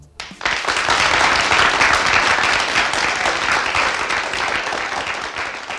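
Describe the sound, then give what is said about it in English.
An audience breaks into sustained applause welcoming a guest, rising quickly to a steady, dense wash of many hands clapping that holds loud for several seconds and only slightly tapers toward the end. “Here to answer those questions a big round of applause”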